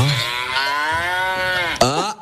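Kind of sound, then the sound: animal, cow mooing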